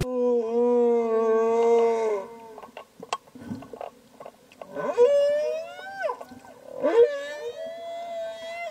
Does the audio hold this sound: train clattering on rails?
no